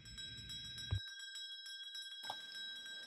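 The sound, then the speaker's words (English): A school starting bell, signalling the first class, rings continuously for about three seconds, a loud, rapid metallic clatter with a steady shrill tone, over some low background rumble at the start and end. “The starting bell will ring in a moment for your first class.”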